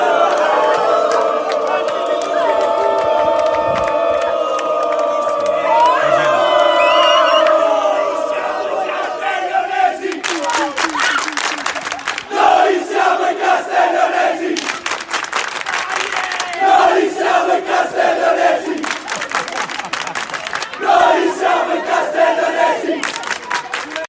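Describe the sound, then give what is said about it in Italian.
A large crowd of fans chants in unison, celebrating two big sporting victories, voices loud and sustained, then breaks into rhythmic clapping and cheering that pulses steadily through the second half. “A questo proposito, come intermezzo sportivo di questa puntata, vogliamo lasciarvi ascoltare dei cori, dei, feste- dei festeggiamenti che si sono succeduti a queste due grandi vittorie.”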